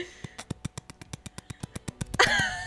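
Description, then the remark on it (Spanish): A voice mimics a helicopter with a rapid, steady train of about fifteen sharp percussive chops, evenly spaced like rotor blades, ending in a brief breathy burst. Fairly loud. “soy actriz, soy estudiante y puedo hacer ruido de helicóptero.”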